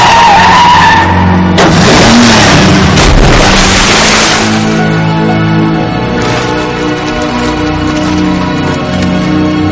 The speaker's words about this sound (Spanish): Parcher frena en seco mientras el otro coche se precipita por el muelle.